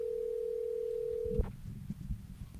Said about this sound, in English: let me get bryce on the phone we'll give him a buzz